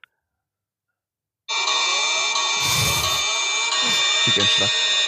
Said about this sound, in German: Ähm, ja, warte, ich mache währenddessen, ich mach, mach währenddessen ein bisschen Werbesound.